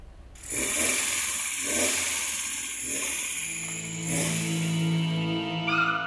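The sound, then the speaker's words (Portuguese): The engine of a small homemade miniature truck, built at home, runs loudly and continuously after a brief quiet start, with a buzzing mechanical drone that gains a steady whining hum toward the end. “O motor é diferente, o tamanho também.”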